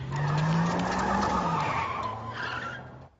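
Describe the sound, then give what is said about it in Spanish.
A school bus driven by Otto skids to a stop with a sustained tire screech and low engine rumble, loud, lasting about three seconds before cutting off. “Tengo 100 años y conduzco un autobús escolar.”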